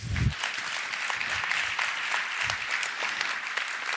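Sustained audience applause fills the room, a dense steady patter of many hands clapping at moderate loudness, with no voices rising above it.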